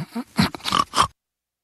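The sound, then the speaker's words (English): A loud snoring snort: a quick string of rough, grunting bursts packed into about one second, then sudden silence. No one speaks. “not even a top five snorer of all time.”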